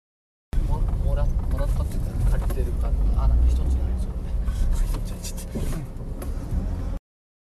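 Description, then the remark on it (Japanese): A steady low rumble of a car driving, heard from inside the cabin, continuous and fairly loud, with people talking over the road and engine noise. The car is one from the family home. “車変えたんだね”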